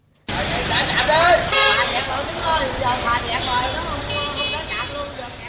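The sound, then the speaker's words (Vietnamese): Loud car horns honk over and over amid a dense crowd of vehicle owners shouting and cheering, with steady traffic noise, as the BOT T2 toll plaza in Thới Thuận ward, Thốt Nốt district, Cần Thơ, Vietnam, opens its gates after prolonged congestion; the blaring tones overlap continuously throughout. “Sự tranh luận nảy lửa, những phản ứng trái chiều, tiếng còi xe liên hồi tiếng hò reo của các chủ phương tiện khi xả trạm do ủng tắc kéo dài đã tạo nên khung cảnh hỗn loạn ở khu vực BOT T2.”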